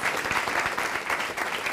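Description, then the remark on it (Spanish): Sustained applause from a crowd for the King of Kings, a dense, steady wash of many hands clapping at an even loudness throughout, with no voices standing out. “Dele ese fuerte Give a aplauso al strong Rey de applause to the Reyes.”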